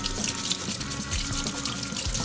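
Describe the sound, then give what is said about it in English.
A steady stream of tap water runs into a sink, splashing unevenly as a piece of ginger just taken out of its pack is rinsed under it, with a few low thumps and sloshes breaking through the constant hiss. “Well, actually, this one I have clean ginger in the refrigerator, but I'll just clean this one now since I just took it out of the pack.”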